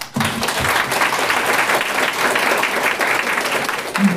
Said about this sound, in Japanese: これをですね、あなたに差し上げたいなと思いますので、皆さん拍手で。